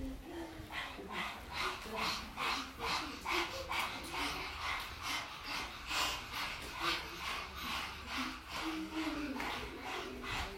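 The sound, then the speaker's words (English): Several people pant rapidly and rhythmically in unison, imitating a dog, with quick breathy huffs repeating steadily for the whole stretch, moderately loud. “And then we're gonna blow, we're gonna pant, we're gonna pant like a dog.”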